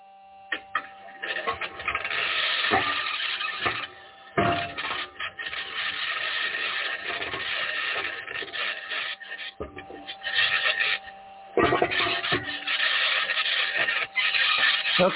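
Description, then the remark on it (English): The Perseverance rover's six aluminum wheels scratching and grinding steadily over rough ground as it drives across the surface of Mars, fairly loud, with occasional sharp metallic clanks and bangs from the rover's suspension breaking through the continuous rasp. “So that's what Mars sounds like if you're on the Perseverance rover with a microphone driving on the six aluminum wheels across the surface.”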